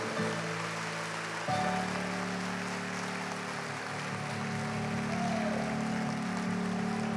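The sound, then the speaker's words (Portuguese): A church audience claps steadily in a dense, continuous wash of applause to the Lord for several seconds, with sustained keyboard or organ chords droning underneath. “Mais um aplauso ao Senhor.”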